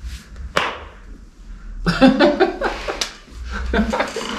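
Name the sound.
hand clapping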